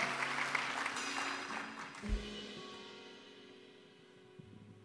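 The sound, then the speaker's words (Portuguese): An audience at a church service applauds the Lord loudly, a dense wash of clapping that gradually thins and fades, with a low sustained organ-like tone underneath and a brief thump midway. “Agora pode aplaudir o Senhor bem forte.”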